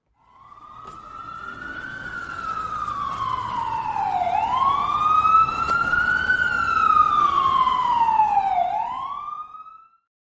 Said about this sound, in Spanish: Entonces, no se asuste con la sirena, esto es el kit de emergencia.